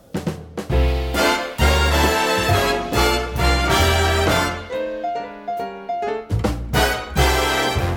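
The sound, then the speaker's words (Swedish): A recorded song plays loud, with a male singer's voice carried over a full, punchy band with driving rhythm and steady beats throughout. “Och då vet ni kanske vem han är när ni hör hur han sjunger.”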